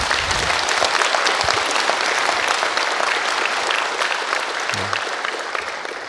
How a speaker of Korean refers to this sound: 제가 부탁도 하기 전에 그 이 사삼 특별법을 심고 가꾸신 김대중 대통령께 여러분들께서 그 마음으로 박수를 보내주신 것으로 그렇게 이해합니다.